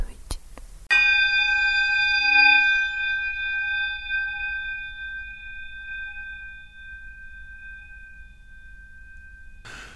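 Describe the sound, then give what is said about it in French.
A single bell strike, recorded with the holophonic spatial audio technique after a voice, rings out clearly, its bright metallic tone sustaining and slowly fading over several seconds. Brief sounds precede the strike, and the decay continues alone until a short noise at the end. “On écoute une voix sensuelle suivie d'une cloche.”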